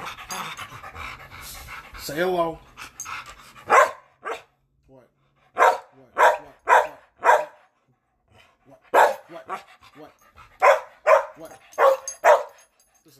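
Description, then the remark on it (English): Dogs Amy and Rocky pant and bark, letting out loud, sharp barks in quick clusters of three or four with short pauses between. A man speaks briefly near the start. “I'm accompanied by my dogs Amy and Rocky.”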